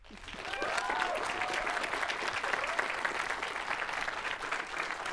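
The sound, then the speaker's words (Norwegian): A crowd claps steadily to welcome film director Karin Julsrud, a dense wash of many hands that swells quickly and holds at an even level for several seconds, with faint cheering or voices mixed in at the start. “Gi en varm applaus til Karin Julsrud.”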